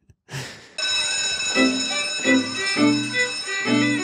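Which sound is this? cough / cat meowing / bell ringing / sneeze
bell ringing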